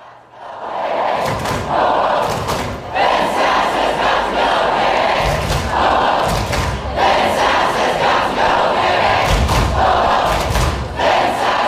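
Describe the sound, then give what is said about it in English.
A large crowd at a union protest chants and shouts loudly and continuously, with repeated rhythmic thuds, like drumming or stomping, punctuating the roar throughout. “It sounds to me like hundreds and hundreds of people.”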